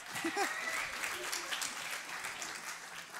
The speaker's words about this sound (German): Ja, gebt ihm mal einen riesen Applaus.